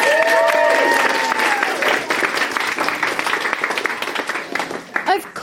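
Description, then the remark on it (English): A crowd at a Naked Scientists event breaks into sustained applause after caterpillars are named the most amazing animal: dense rapid clapping that holds steady for several seconds, with a rising whistle or whoop at the start before the clapping thins toward the end. “Round of applause.”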